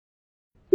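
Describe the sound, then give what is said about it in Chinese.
A single water drop lands with a short, pitched plink after a long stretch of silence, clear and fairly loud, with no voices present. “怎么还有水滴的声音？”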